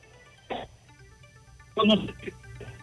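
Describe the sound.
A muffled, tinny telephone connection with a reporter calling in from La Vega carries a few broken, garbled bursts of a voice, separated by gaps over a steady low hum and faint tonal buzz.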